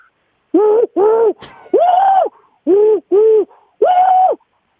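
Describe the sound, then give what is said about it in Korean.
A voice imitates the call of a morning bird in the mountains, six loud hooting notes in a steady, slightly uneven rhythm, each a low rounded tone with a brief click between the second and third. “자, 여러분 산속 아침 새소리 모닝버드 크라이 들어볼게요.”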